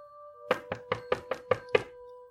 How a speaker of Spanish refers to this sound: De repente se inclinó y golpeó la ventana, haciéndome saltar.